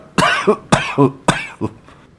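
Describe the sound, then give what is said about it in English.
A fit of three harsh coughs in quick succession, each a sharp burst trailing into a rougher gasp, then fading into quieter throaty sputters. “A coughing fit then took hold.”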